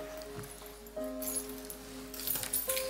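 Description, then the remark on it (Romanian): A bunch of keys, two car keys for different cars and a house key, jingles during a sermon in short, bright metallic bursts, scattered and irregular, moderately loud over a steady low background hum, with no one speaking. “Cine are un mănuc de chei?”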